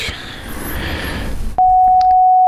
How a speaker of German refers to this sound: Dieser Ton vielleicht. Das ist der Sinuston.